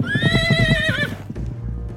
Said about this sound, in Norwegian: Cowboyer i USA som rir raskt på store hester.